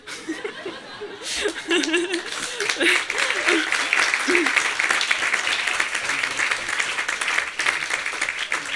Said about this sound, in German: Applaus